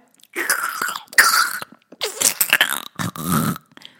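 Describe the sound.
A voice imitates a brain melting with wet, squelchy mouth noises: four slurping, gurgling bursts in quick succession, fairly loud, with brief pauses between them.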